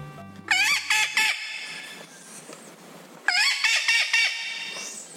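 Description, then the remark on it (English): Two loud bursts of harsh, squawking calls of the critically endangered Puerto Rican parrot, each a quick series of rising and falling notes, with a quieter pause between them and no talking. “She and her team are working to boost the numbers of this critically endangered parrot in the wild.”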